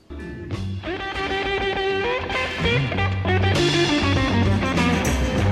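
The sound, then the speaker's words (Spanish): A rock band plays a cover song loudly and continuously, with dense sustained chords and shifting melodic lines; no singing is heard in this stretch. “Y a una ocasión, como en este que vamos a escuchar”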